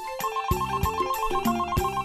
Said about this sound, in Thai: ค่ำวันหนึ่ง ขณะที่ลุงทองดีกำลังนั่งกินข้าวเย็นอยู่นั้น ก็ได้ยินเสียงโทรศัพท์ดังขึ้น ลุงทองดีจึงได้ลุกจากโต๊ะกินข้าวและเดินไปรับโทรศัพท์